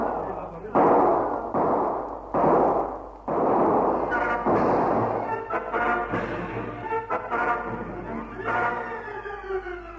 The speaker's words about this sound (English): Haines dropped to the ground to dodge the murderous fire